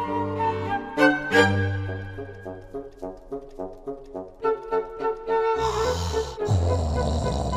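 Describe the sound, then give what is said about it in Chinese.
A man snores in loud, rasping breaths as the pirate Injun Joe in an audio drama, over a rhythmic, plucked musical backing, with the noisier snorts coming toward the end. No one speaks. “没多久，印第安乔就开始打呼了。”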